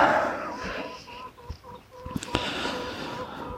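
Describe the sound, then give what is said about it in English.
Chickens clucking and murmuring in a steady overlapping chatter with a few sharp knocks and rustles mixed in, as they are let out and given their mealworms and pellets. “Let's let these chickens out, let's get them.”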